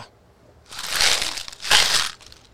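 Peso coins rattle inside a container as it is shaken in two bursts, a bright, clattering jingle that swells and fades each time, with no talking.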